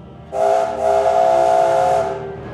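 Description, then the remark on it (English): A loud, sustained steam engine whistle from Young Bao, a big bright red engine with a gold tiger painted on his tender, blasts for about two seconds with a brief dip partway through, its bright tone layered over breathy steam hiss. “He is clever, kind, and caring, and has a whistle that sounds like this.”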